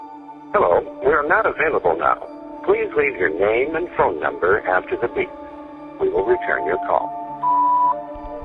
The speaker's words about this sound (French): Et là, ils entendent une voix horrible qui n'a rien d'une voix humaine. Cette voix parle dans une langue inconnue, et le seul mot qu'ils arrivent à distinguer est partez.